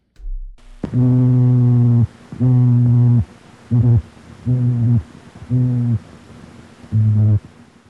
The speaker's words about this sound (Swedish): Och ett sista klipp är från en simpa, en fisk som lever på botten. Vi har olika arter här i Sverige. Nästan som en katt som spinner.